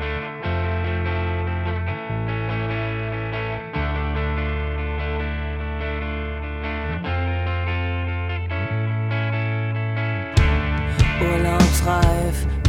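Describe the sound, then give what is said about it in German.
A punk rock song opens with loud, distorted electric guitars strumming sustained chords that shift every couple of seconds, before drums and crashing cymbals kick in near the end. No vocals. “ich glaube, wir müssen den Song jetzt hören, oder?”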